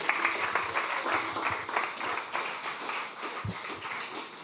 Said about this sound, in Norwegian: Ja, applaus til alle sammen.